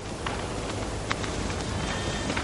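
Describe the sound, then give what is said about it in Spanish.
A man's running footsteps land in long, bounding strides as he comes running in great leaps, a handful of irregular thuds spaced across a few seconds over a steady hiss of outdoor background noise, with no one speaking. “Azarías viene corriendo a grandes saltos.”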